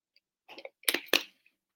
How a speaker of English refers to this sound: look i'm gonna take a sip of water after that